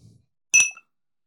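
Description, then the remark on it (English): A single bright clink of glasses touching in a toast, sharp and ringing with a short shimmering decay, clear with nothing else around it. “producing a clink, producing a clink.”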